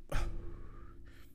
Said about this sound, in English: Um, let's take a sip.